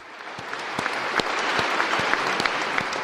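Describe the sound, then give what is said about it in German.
An audience applauds the Wiltener Sängerknaben boys' choir steadily, a dense wash of clapping with sharper individual claps popping through, holding at an even, fairly loud level throughout without any voices. “Ein großer Applaus hier noch von uns äh, für diese Jungs, für diese Wiltener Sängerknaben.”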